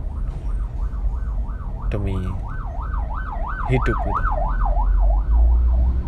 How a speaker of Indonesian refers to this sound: barusan ada ambulan ya semoga yang di dalam bisa selamat ya